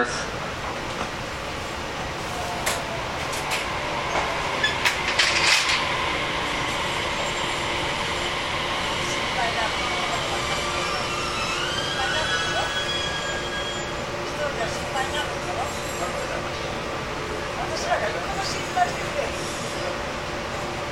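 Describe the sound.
Steady rumble and clatter from inside a moving JR Kyushu 415-series electric train on the Nippō Line between Ōita and Kōzaki, with a whining motor tone that shifts in pitch as it runs, constant, with faint muffled voices underneath.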